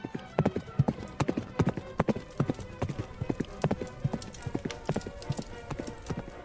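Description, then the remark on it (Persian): Siavash's black horse from the Shahnameh gallops at speed into the fire. Its hooves strike in quick, uneven clusters of sharp, loud thuds that keep up a driving rhythm throughout. “سیاوش سیه را به تندی به تاخت نشد تنگ دل جنگ آتش بساخت ز هر سو زبانه همی برکشید کسی خود و اسب سیاوش ندید”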